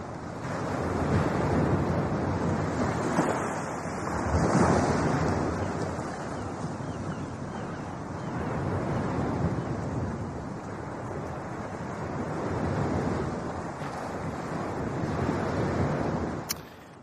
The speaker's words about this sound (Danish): Kan du høre havet, Jan?